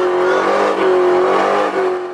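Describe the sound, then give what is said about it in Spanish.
A car engine revs hard and steadily through a tire burnout, a loud, continuous roar with a droning pitch, no voices present. “Oye, aquella quemando llanta.”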